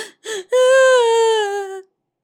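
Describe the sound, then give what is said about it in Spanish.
A voice mimics a child crying: two short sobbing catches, then a long, loud, drawn-out wail that slowly falls in pitch before cutting off. “Después lloró un poco más, como el que ya está llorando en serio.”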